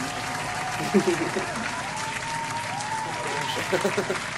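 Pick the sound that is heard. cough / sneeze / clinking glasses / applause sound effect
applause sound effect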